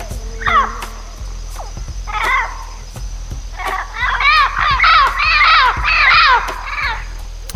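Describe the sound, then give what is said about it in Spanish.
Parrot calls: harsh, chattering squawks come in short bursts, then a dense, loud run of rapid calls in the second half, with no one talking. “Este, es ese loro que es muy bonito, ¿no? El loro volador.”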